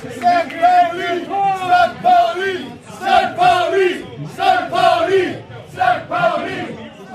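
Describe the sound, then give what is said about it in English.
St. Pauli football fans packing the East River Bar in Brooklyn chant and cheer together while watching St. Pauli play FC Heidenheim on a big screen, loud sung phrases rising and falling in a steady rhythm, repeating in several bursts with short dips between them. “Die East River Bar in Brooklyn ist gerammelt voll.”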